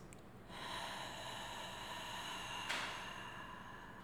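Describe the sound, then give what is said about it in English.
A single deep breath drawn in through the nose, airy, then a slow, long exhale, longer than the inhale, that stays steady for several seconds with a slight push partway through, as a breathing exercise. “And so breathing, breathing, like breathing in through your nose and then a, an elongated exhale, so longer than your inhale, and saying the mantra, it's safe for me to be seen.”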